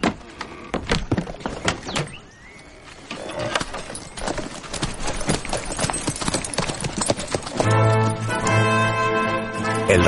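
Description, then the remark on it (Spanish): Hooves clop in a steady rhythm as a horse-drawn carriage carrying Antonio pulls away, with rolling wheels and creaks, then a fuller, sustained rumble builds near the end. “Entrega las misivas al secretario y luego se monta en su carruaje y se va.”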